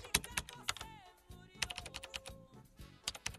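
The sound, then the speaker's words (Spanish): Rapid, uneven clatter of keys on a computer keyboard, coming in bursts of sharp clicks with brief pauses between them, over a faint sustained tonal sound in the background. “por ahí lejos, ahí con su computadora, dale, que dale, que dale, qué es eso, hombre, qué es eso, por Dios.”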